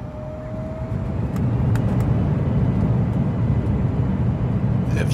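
A steady, loud low-pitched drone of airplane engines starting up, making the whole cabin vibrate, with a few faint clicks and rattles on top.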